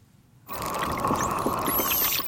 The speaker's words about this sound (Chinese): 对对对，我们平常常听到就刚刚那个很细的啾，那个是一般的海豚会有的哨叫声。